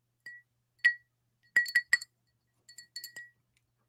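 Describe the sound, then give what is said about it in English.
Bright clinks of melting ice cubes shifting in a cold brew cup, a dozen or so quick taps arriving in small clusters with short quiet gaps between, no voices. “You guys were loving the ASMR of my melting ice cubes in my cold brew cup here.”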